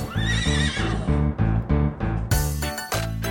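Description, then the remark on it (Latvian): A horse whinnies loudly over a steady, rhythmic rumble of hooves and wheels as a shiny carriage passes, pausing briefly as it stops before rolling on, with no voices. “tai pašā brīdī laiduse spoža karīte garām un apstājusies pie kaziņas”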